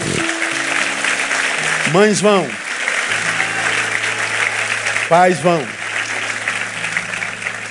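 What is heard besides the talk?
audience applauding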